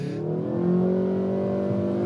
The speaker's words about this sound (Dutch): Onder de motorkap ligt de 2 liter turbo benzinemotor.